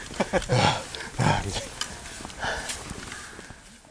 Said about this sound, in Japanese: もうなんかただの喘ぎ声みたいな感じです